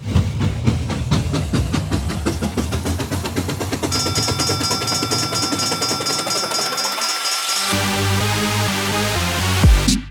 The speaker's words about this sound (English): think this train's about ready to move.